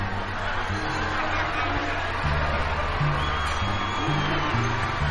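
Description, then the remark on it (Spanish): A large audience shouts together, chanting "El que no salta es facho", in a steady, dense roar of many voices, holding at an even loud level for several seconds with chant-like tones rising and falling underneath. “El público comienza a gritar algo que El que nos salta es facho.”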